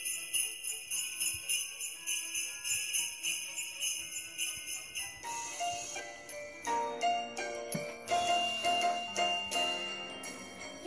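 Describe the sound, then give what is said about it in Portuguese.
A small Christmas bell jingles in a bright, steady rhythm, its tinkling ringing clear with a musical, chiming quality throughout, and no one speaking. “Olha esse sininho.”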